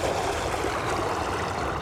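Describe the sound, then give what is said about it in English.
Paddle strokes ripple through water in a steady wash, soft and continuous with no sharp individual splashes standing out and no voices. “Soft, soothing tones mirror the peaceful rhythm of each stroke against the water.”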